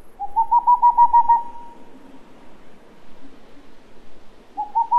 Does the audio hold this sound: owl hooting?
yes